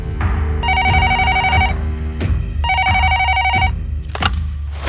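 household object, telephone ringing

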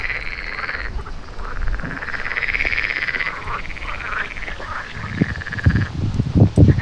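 animal, frogs or toads croaking

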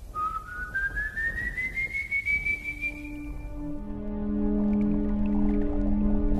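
sound effect, eerie whistling

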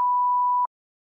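sound effect, censorship bleep tone

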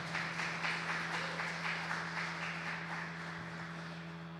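crowd, audience applauding

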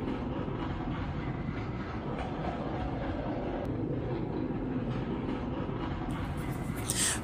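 vehicle, tram running on rails

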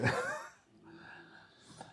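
animal, dog barking and growling

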